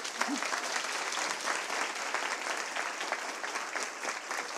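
A crowd applauds steadily to welcome a speaker, an author, a dense wash of many hands clapping at a constant, fairly loud level throughout, with no voices standing out.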